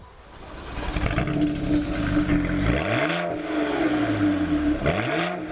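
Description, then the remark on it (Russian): A BMW 335is exhaust idles with a steady deep rumble, then two sharp revs swell and fall back, loud, with no voices. “И я не имею права не отметить заднюю часть автомобиля, поскольку она тоже смотрится ничего, во многом благодаря аэсовскому бамперу с диффузорами и, как говорят BMW-шники, э, лучшему выхлопу. Давайте послушаем.”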